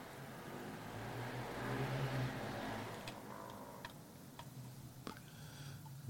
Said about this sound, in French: Euh, désolé pour le bruit, c'était un fou à moto. Là, on l'entend encore.